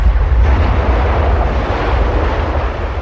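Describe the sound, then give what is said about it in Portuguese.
A deep, continuous roar of sea waves booming inside a furna, a coastal sea cave at the back of a seaside fortress, loud, with heavy low rumble and a wash of noise that never lets up. “Além disso, ali ao fundo da fortaleza há uma coisa que se chama furna. Aquilo tem um ronco, pá.”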